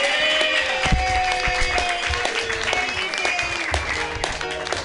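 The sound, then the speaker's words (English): An audience applauds steadily after a comedian's stand-up set, a dense wash of many hands clapping at a fairly loud, even level for about five seconds, with faint tonal whoops threaded through it. “Keep clapping.”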